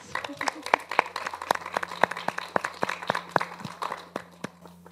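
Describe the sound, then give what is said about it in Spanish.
A small crowd at a Christian church gathering applauds as a pastor's wife is invited to join and answer questions: a steady patter of distinct claps, moderately loud, gradually thinning toward the end. “La aplaudimos.”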